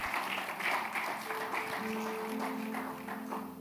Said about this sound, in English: Give the Lord a clap offering in the house.